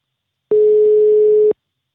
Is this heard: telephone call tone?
yes